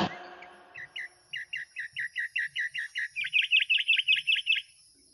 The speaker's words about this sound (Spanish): Pájaro sisonte, quiero descifrar tu canto, cuando cantas al oriente, cuando conversas en el cenit del sol, cuando dices al declinar el día, en los ojos del sol, dejas tu palabra a las puertas del ocaso.